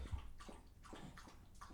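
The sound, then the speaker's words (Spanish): Soft, wet lapping sounds repeat in a steady rhythm, about five quick splashy laps, as a pet drinks water. They're faint, with no voices. “Parece que la Pipi está tomando agua, pero no sé si se escuchará por el micrófono”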